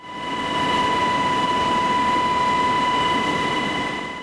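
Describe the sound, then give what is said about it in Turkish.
A Gendarmerie General Command helicopter carrying medical teams takes off to fetch five people stranded by snow, its loud, steady engine roar and high turbine whine filling the scene continuously, with a dense rumble underneath and no voices. “Sağlık ekipleriyle havalanan helikopter hastaları mahsur kaldıkları yerden alıp tekrar havalandı.”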